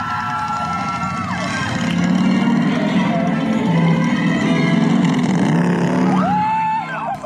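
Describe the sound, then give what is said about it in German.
A motorbike-style roller coaster roars by as riders sit on motorcycles racing over track that bends in every direction. A loud sustained rumble swells and fades over several seconds, with faint shrieks from riders rising over the noise near the end. “Man kachelt da nämlich auf einem Motorrad sitzend mit gefühlten 250 Kilometern pro Stunde über die sich in alle möglichen Richtungen biegenden Schienen und versucht dabei nicht das Bewusstsein zu verlieren.”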